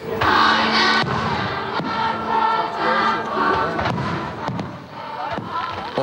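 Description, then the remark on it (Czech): Fireworks go off in scattered sharp bangs over a loud, steady wash of crowd noise, with voices shouting and murmuring. It is midnight at the Czech-German-Polish border tripoint, and the crowd is celebrating the Czech Republic joining the European Union. The fireworks are visible in three countries. “ohňostroj viditelný ve třech zemích, z nichž dvě právě začaly odpočítávat první minuty členství v Evropské unii.”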